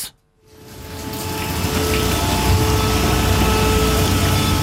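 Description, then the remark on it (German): After a brief silence, a loud, steady mechanical drone of pumps sucking the last flood water out of garages and cellars in Schlaten in the morning rises and holds, a broad rushing roar with a faint whine, continuous, with no voices. “Die letzten Reste Wasser werden noch aus den Garagen und Keller gesaugt heute Morgen.”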